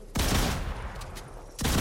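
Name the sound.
video game gunfire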